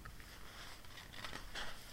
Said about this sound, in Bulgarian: Разгръщам страницата и продължавам.